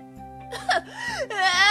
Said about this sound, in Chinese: 打滚结束。又趴在地上连续翻滚，还加入震天喊的哭声。